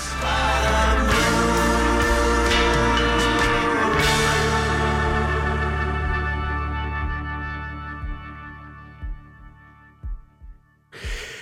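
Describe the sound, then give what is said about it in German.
Dense, swelling music fades away at the end of an album, leaving a recorded human heartbeat, the same sound the album opens with: soft, low thumps in a slow, steady rhythm that continue briefly on their own before a final swell. “Und das Album endet natürlich gewollt, äh, so wie es angefangen hat, mit dem menschlichen Herzschlag.”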